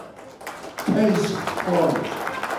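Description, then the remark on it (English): A crowd at a fundraiser applauds Pascrell for his support of Israel in a steady, dense wash of clapping, with voices calling out and cheering over it that swell twice before the clapping carries on. “That was Pascrell at a recent fundraiser, getting applause for his unflinching support of Israel.”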